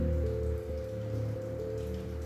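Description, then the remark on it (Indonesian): Steady rain falls continuously, a soft even patter on a surface with a low droning hum underneath, fairly quiet and unchanging throughout, with no one speaking. “ini lagi hujan lagi ya”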